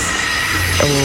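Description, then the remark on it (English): Loud, harsh car brake noise lasting about a second, a rough hissing scrape that turns into a tonal groaning squeal near the end, with no voices. “Does your brake sound like this?”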